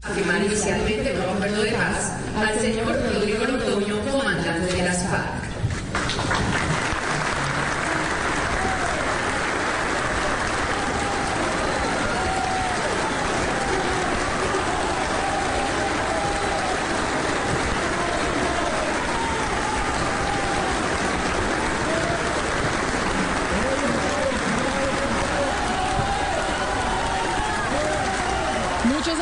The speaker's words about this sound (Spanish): aplausos ese día en el segundo evento de la firma del acuerdo de paz.